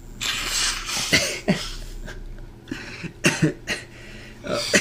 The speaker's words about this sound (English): blow my nose.